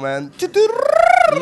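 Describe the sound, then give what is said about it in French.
After a brief spoken word, a man's voice imitates a boat with a sustained, fairly loud hum that rises and falls in pitch and pulses rapidly, like a chugging motor. “ça, mon bateau. Ça, c'est un bruit de bateau”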